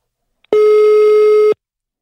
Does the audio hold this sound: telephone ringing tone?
yes